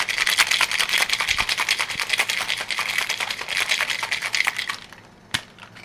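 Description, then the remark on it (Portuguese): At a pool bar beside the heated pool overlooking Lagoa dos Salgados, a bartender shakes a cocktail hard in a shaker with ice, a loud, rapid, steady metallic rattle for several seconds that stops abruptly, followed by a single sharp knock. No one speaks. “O próximo passo é o shake, bebida.”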